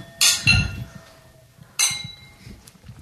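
Glasses clink together in a toast, two bright ringing chimes about a second and a half apart, fairly loud, with soft room noise between them.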